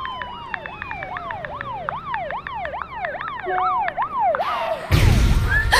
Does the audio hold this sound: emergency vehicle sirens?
yes